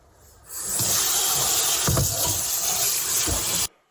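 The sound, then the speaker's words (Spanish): Cold water pours steadily over cooked pasta to cool it for a pasta salad, a loud rushing hiss lasting about three seconds with a few soft low splashes, then cutting off abruptly. “Vamos a echar agua fría porque como es una ensalada, no queremos que la pasta esté muy caliente.”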